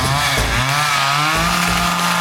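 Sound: chainsaw revving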